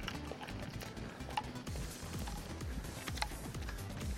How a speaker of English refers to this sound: We can hear all of the things on your lanyard are just clunking oh, away.